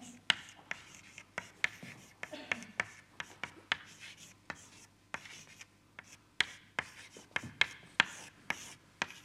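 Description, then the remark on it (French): Chalk taps and scrapes across a board in quick, irregular, fairly crisp strokes as the KPZ equation is written out in one dimension, with a few soft murmurs of a voice between the marks. “je réécris l'équation KPZ. j'écris à une dimension.”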